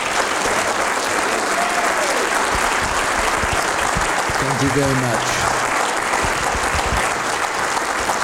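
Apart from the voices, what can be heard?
round of applause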